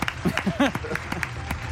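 A short burst of audience applause: scattered, uneven claps running through the moment, with a brief voice sounding over them at the start.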